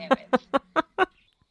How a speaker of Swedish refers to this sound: jag står här liksom i solskenet och fåglarna kvittrar